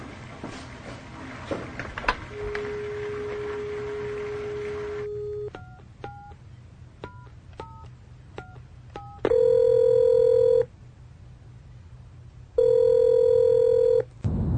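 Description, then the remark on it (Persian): A phone line's steady dial tone gives way to a quick series of short keypad tones as a number is dialed to call people about their lab test results, followed by two long ringing tones on the line. “از همینجا باهاشون تماس بگیرید جواب آزمایش رو بهشون بگیرید”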